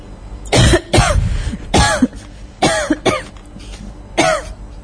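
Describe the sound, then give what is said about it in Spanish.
A long coughing fit: several harsh, loud hacking bursts in uneven succession with brief gasps between, with no one talking. “una tos bastante larga.”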